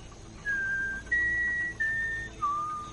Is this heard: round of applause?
no